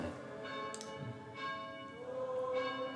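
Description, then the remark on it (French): A church bell rings repeatedly, each stroke blooming into a long, shimmering hum that overlaps the next, moderately quiet, with no voices present. “Voilà, donc la cloche m'appelle.”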